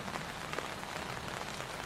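Steady rain pattering on a cramped four-person tent that is leaking from the roof, with water seeping in from the side: a dense, even hiss of countless drops with small irregular ticks, moderately loud and continuous, with no voices.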